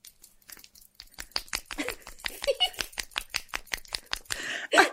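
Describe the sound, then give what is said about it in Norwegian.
A rapid series of sharp, dry snapping clicks in an irregular rhythm, made by someone snapping their ears, with faint breathy laughter and murmuring around them and a louder burst at the end. “Ja, en annen ting er at jeg kan knipse med ørene.”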